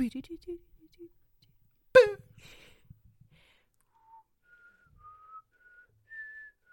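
A person whistles a short rising melody of sustained, pure tones in the second half, preceded by brief vocal sounds and a sharp burst, fairly soft.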